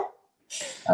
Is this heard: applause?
no